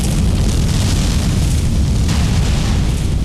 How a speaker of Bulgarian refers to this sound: Да, това е вулканът в Кракатаула, който е изригнал с такава сила, че е разкъсал целия остров и се е издигнал 27 км в атмосферата.